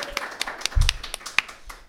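crowd, applause

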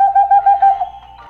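bird, owl hooting

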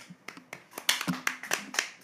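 crowd, hand clapping

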